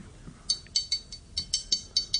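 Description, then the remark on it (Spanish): A glass tapped repeatedly as percussion from a home for a choir rehearsal, about ten bright clinking hits in a quick, slightly uneven rhythm, clear with no voices. “El amarillelo, el puro vaso de amarillelo.”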